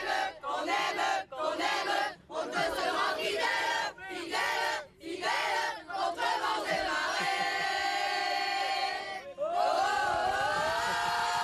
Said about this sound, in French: juste on a entendu derrière vous le chant des supporters. Il y a un chant qui a été écrit spécialement pour, euh, pour ce match ben voilà, justement.